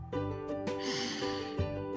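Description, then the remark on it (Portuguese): A long, deep breath drawn in through the nose, lasting about a second, heard clearly over steady, soft background music with no talking. “Respire”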